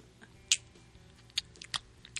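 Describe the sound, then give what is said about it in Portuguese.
Several wet, smacking kiss sounds made with the lips against a closed fist, irregularly spaced, each one a brief sharp pop with quiet pauses between. “É o beijo.”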